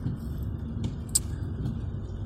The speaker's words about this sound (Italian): Inoltre piove a dirotto, sto guidando per andare al lavoro.